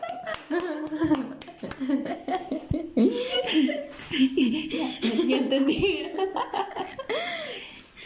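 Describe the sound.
Brief applause: scattered, irregular sharp hand claps sound throughout, mixed with laughter and excited voices talking over them.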